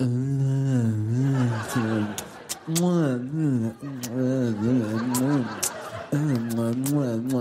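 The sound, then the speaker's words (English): A voice makes exaggerated mouth noises, drawn-out humming and moaning tones broken by sharp wet smacks, mimicking making-out kissing sounds, continuous for several seconds. “If you guys are looking for me later, I'll be in the back making out. I think you guys know what that sounds like.”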